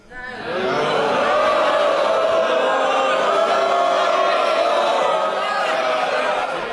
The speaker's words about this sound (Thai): จากนั้นฉากแห่งความวุ่นวายยุ่งเหยิงตามมาเมื่อซาร่าคลาร์กแบล็กบรอดผู้ถือคาถาสีดำอันเป็นสัญลักษณ์แห่งพระราชอำนาจ เดินเข้าไปในสภา เพื่อกล่าวปิดประชุมสภาชั่วคราว แต่กลับเต็มไปด้วยเสียงโห่จากสสที่ไม่เห็นด้วย